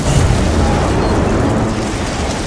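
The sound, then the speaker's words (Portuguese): A loud explosion effect of ice bursting: a dense, roaring burst of crackling noise with a heavy low rumble that holds steady for a couple of seconds. No one speaks. “Não! ela explode gelo.”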